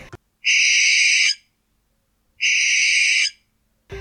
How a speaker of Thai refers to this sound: ก็เลยเป็นที่มาของชื่อนกแสกนั่นเองค่ะการที่นกแสกร้องนั่นก็เพราะว่า จะร้องเตือนนกตัวอื่นไม่ให้เข้ามาในอาณาเขตหาอาหารของตัวเองค่ะ